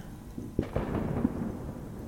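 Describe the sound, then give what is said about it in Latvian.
Muffled fireworks booming outside, a few dull thuds and cracks landing close together over a steady low rumble, fairly faint, with no voices. “Dzirdat salūts arī, vai?”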